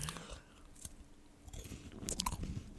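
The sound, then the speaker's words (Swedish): Wet smacking and crunching chews from someone eating, in an uneven rhythm, with a few sharp clicks and low murmuring moans mixed in toward the end. “Om någon äter och så här smaskar men också säger, eller typ stönar samtidigt.”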